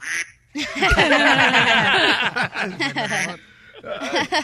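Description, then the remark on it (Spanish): A robot voice imitates a duck with a loud, rapid run of nasal quacks lasting about three seconds, then a short pause before a few more quacks. “A ver, a ver, mírate, el robot imita también a los patos.”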